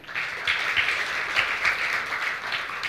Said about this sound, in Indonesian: Sekali lagi tepuk tangan untuk Tuhan.